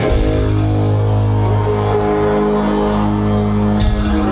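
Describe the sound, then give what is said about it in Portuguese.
A concert crowd at Credit Hall in São Paulo cheers and shouts wildly as the performer enters holding a Brazilian flag on its pole, over loud, steadily pulsing music, the roar sustained and dense throughout with a regular beat thumping underneath. “A galera alucinando.”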